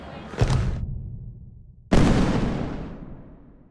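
Two loud firework thunder-blasts, the first warning before the fireworks display by Ricardo Cavaller at Passeig de l'Albereda in València, boom out a second and a half apart, the second sharper and heavier, its rumble rolling away slowly over a faint background murmur.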